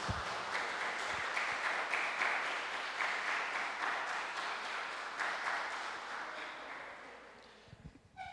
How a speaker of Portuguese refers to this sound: Pode aplaudir ao Senhor em nome de Jesus.